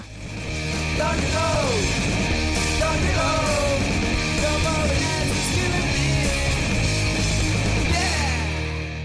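A loud rock song from an Asturian band's debut album plays steadily throughout, with dense distorted guitars, driving drums and a raw, shouted vocal whose pitch slides in wailing glides; no one talks over it.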